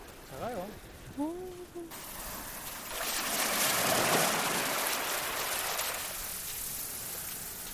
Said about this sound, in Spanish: Hasta se percibe cómo las olas arrastran y devuelven la arena a la orilla.